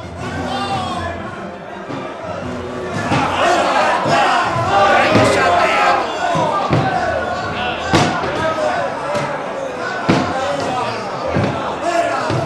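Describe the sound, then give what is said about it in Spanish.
A furious crowd shouts and roars together while heavy, repeated axe blows crash against the wooden door of the Palace of Godoy at irregular intervals, sharp loud impacts cutting through the constant din of angry voices. “No tardó en caer al suelo destrozada por los hachazos la puerta del Palacio de Godoy, cuyo nombre pronunciaba el irritado pueblo entre horribles juramentos y amenazas.”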